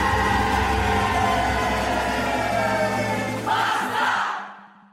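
The closing moments of a samba school's 2022 Carnival theme song: a loud, dense blend of group singing and steady drums that swells briefly before the sound fades out.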